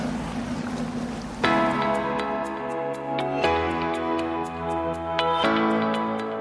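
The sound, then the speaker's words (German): The engine of a ship from Denmark drones steadily as it passes on a river, its deep humming tone shifting a few times, with a fast, regular ticking running over it. No one speaks. “Nachdem hier gleich eine Radlerin am Treidelpfad langgetreidelt ist, grüßen wir jetzt gleich die Tyra 11 aus Dänemark. Wir gehen mal ins Wasser ran.”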